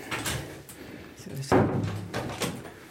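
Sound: door opening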